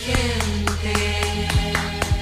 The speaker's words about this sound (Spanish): ¡Alto! ¡Paren esos aplausos ahora mismo!